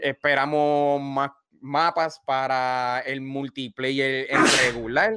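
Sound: sneeze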